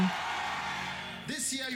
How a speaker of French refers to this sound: Tu reçois la restauration de l'humilité. Crie ton plus fort, Amen.